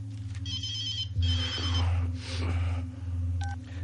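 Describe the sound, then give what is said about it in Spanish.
A telephone in a room rings in two bright, trilling bursts, each lasting under a second, over a steady low hum, followed by a brief faint beep near the end. “Vuelve a la habitación y contesta al teléfono.”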